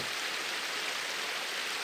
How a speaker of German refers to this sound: Hier am rauschenden Bach beginne ich mit der Aufnahme für heute.